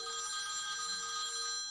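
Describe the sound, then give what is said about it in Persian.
A mobile phone rings continuously for a long time with a bright electronic tone, steady, with no voices over it. “در ضمن موبایلتون خیلی وقته که داره زنگ میخوره”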